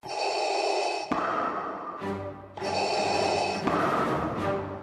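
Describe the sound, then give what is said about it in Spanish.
Darth Vader's heavy, mechanical breathing through a mask, from the Star Wars miniseries Obi-Wan Kenobi: two slow inhale-exhale cycles, each a loud hissing, rasping draw followed by a gravelly release, steady with no talking. “El sonido de su respiración nos hace detenernos.”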